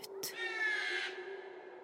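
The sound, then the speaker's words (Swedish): A large magpie perched in an oak tree at the end of a road screeches once, a harsh, drawn-out rasping call that follows two short sharp clicks and then trails off. It is fairly loud, with no talking. “Den satt vid ett träd vid vägens slut och gapade och skrek med sin stora trut.”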